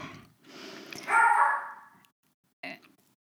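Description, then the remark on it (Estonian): The speaker's family dog, at home, barks a few times, with one louder, drawn-out bark in the middle and a short final yap after a brief pause; no one speaks. “no näed, justkui tellitult otsustas äsja mainitud koer ka sõna sekka öelda”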